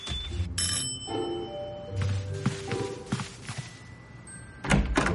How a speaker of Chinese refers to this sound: 威灵兴奋地打开门，接过包裹。